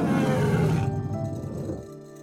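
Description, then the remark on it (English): Four leopards pulling a golden chariot through the sky roar in a loud, raspy burst that trails off into a lower, rumbling growl, lasting about two seconds with no voices. “Instead of being pulled by horses, the chariot is sped through the air by four leopards.”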